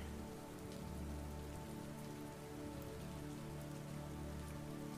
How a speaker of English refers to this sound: We can hear the drops hitting the roof. We can also hear the ocean outside.